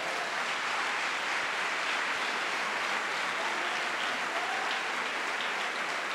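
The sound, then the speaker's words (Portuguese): An audience applauds together for Jesus: dense, steady clapping from many hands fills the whole stretch with a continuous crackling wash, no voices standing out. “Então vamos dar uma salva de palmas para Jesus.”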